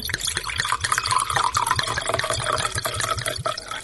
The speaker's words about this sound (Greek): περίμενε, περίμενε, περίμενε να βάλω λίγο στα ποτήρια μας αυτό το ωραίο το κρασί. Έλα, έλα, για βάλε.